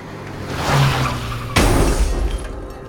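A car crash: a rising engine rumble and roar, then a sudden loud impact about halfway through, followed by shattering glass and crunching debris fading away. No voices.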